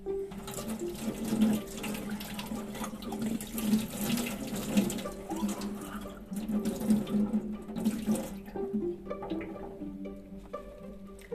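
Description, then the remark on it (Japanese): Tap water runs steadily, splashing as a small pale yellow-green ceramic teapot, bought in a pottery town in Taiwan, is rinsed under it before use, the flow shifting as the pot is turned. No one speaks. “すぐそこにあったあららららなので最初ちょっと洗洗います。”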